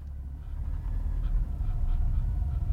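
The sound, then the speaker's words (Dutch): Steady low rumble of road noise from inside a moving car, a constant deep drone with faint higher hiss and no voices. “We rijden in de auto, maar we zijn er bijna”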